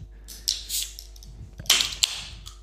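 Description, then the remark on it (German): A soft drink bottle from Gedima Erfrischungsgetränke GmbH of Hügelhaar, made in Germany, being opened: two bursts of sharp, airy fizzing hiss as the gas escapes, the second ending in a brief click, with no talking over it. “Gedima, Erfrischungsgetränke GmbH. Hügelhaar. Ich werde das jetzt öffnen, Jungs.”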